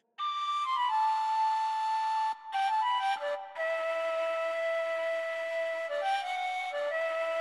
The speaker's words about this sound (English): The pan flute was just this very breathy alternative to the penny whistle.